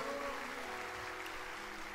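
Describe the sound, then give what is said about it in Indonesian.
An audience at a church service applauds for God in a dense, steady wash of clapping that holds evenly for about two seconds, with faint sustained low tones underneath and no voices. “Come on, berikan tepuk tangan buat Tuhan.”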